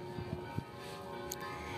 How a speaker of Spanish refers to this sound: Y entonces, con este tono de las campanas que me encanta, que resuena maravillosamente con lo que les estoy diciendo